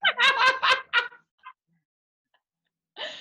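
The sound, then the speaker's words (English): A quick run of four or five nasal, raspy duck quacks, followed by a couple of faint softer calls, a pause, and one more short harsh quack at the end. “What does a duck do? Quack quack.”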